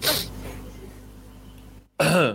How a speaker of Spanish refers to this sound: Perdón, ya estoy tosiendo de la emoción. Un segundo, por favor.